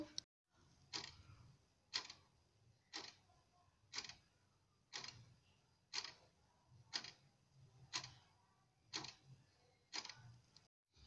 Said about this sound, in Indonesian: Itu suara jam. Ya, benar sekali.